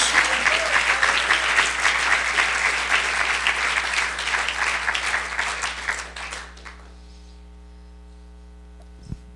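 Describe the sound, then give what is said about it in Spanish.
A crowd claps loudly and steadily in praise for about six seconds, the dense applause then fading out, leaving a low electrical hum and a single faint click near the end. “¿Cómo quieres alabar mi nombre? Aplaudiendo, aplaude.”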